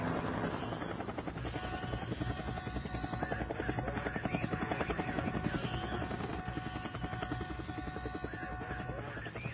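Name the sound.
helicopter flying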